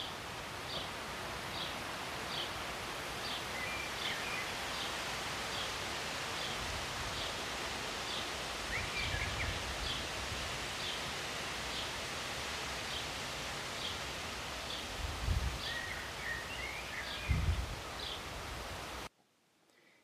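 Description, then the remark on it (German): Leaves rustle in the wind in a steady, dense wash outdoors while a bird chirps again and again in short, evenly spaced calls, with a few soft low thumps, before everything cuts off near the end. “Hier ich weiß nicht, ob du das hier hörst, das Rauschen der Blätter, Vögelgezwitscher, ab und zu ein Frosch.”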